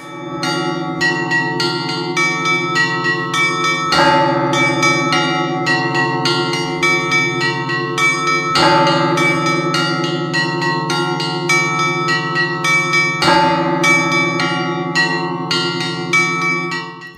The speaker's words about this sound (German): Die finnischen Glocken aus dem Kloster aus Finnland, da hängt der Mönch so in den Seilen drinnen.